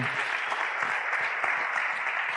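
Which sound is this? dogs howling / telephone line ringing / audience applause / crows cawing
audience applause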